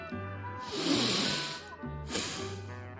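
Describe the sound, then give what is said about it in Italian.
A slow, deliberate breath drawn in and then let out to regulate breathing, two long airy rushes, with a faint steady hum in the background. “Regolare il respiro.”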